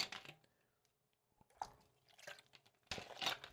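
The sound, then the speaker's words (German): Wet mouth sounds of someone sipping and swallowing water, with soft slurps and a few moist clicks separated by short quiet pauses, no talking. “Ich gönne mir mal kurz ein Schlückchen Wasser.”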